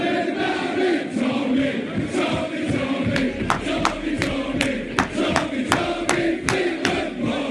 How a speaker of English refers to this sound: It's a famous old course, and the Molinari pairing went nuts. And listen to the uh, European fans.